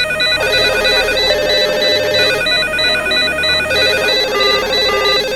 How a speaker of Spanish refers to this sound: Mientras los teléfonos no dejan de sonar en las oficinas de la policía,